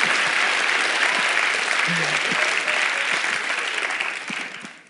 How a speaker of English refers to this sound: yeah, clap for them, man. Come on.